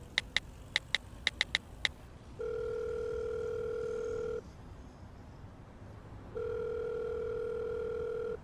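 Seven quick touch-tone dialing beeps, followed by a steady, humming telephone tone that sounds for about two seconds, pauses, then sounds again. No voices.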